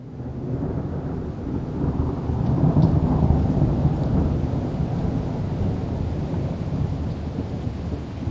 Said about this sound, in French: Le 11 novembre, il savoure avec un plaisir immense la pluie tropicale qui s'abat sur lui. Elle le rince et le débarrasse du sel qui recouvre sa peau.